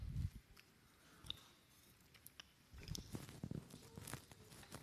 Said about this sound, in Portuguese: Outra coisa aqui, querido, deixa eu só tomar um golinho de água aqui.